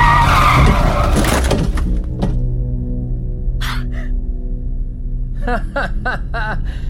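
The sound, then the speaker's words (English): A car brakes hard with a loud, harsh tire skid lasting about two seconds, then settles into a steady low engine hum while brief voices sound near the end. “Heavy on the brakes there, fella.”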